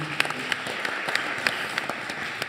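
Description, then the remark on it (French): An audience applauds steadily for Eric Alouche, director of ERA France, a dense wash of many hands clapping at once with a few sharper claps popping out, and no voices over it. “Un tonnerre d'applaudissements pour Eric Alouche, le directeur d'ERA France.”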